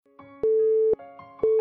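A mobile phone's busy tone after a hang-up: steady mid-pitched beeps, each about half a second long with equal gaps, repeating loudly three times over a faint musical background.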